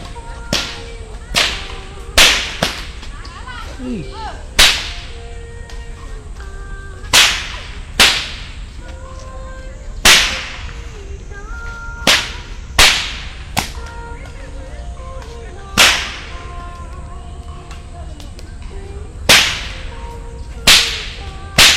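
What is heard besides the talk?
whip cracking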